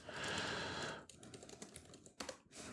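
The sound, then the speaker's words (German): Rapid clatter of keys being typed on a computer keyboard, fairly quiet, with a dense burst of keystrokes at first, then sparser clicks and a few sharper taps near the end. “Also, das tippe ich jetzt natürlich.”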